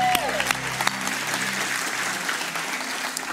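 A large crowd claps and cheers for Jesus steadily, a dense wash of applause with scattered whoops and shouts rising above it, sustained throughout without a break.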